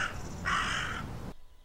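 A crow caws harshly twice in quick succession, the second call longer and louder, with rough, raspy tones, then falls quiet. No one speaks.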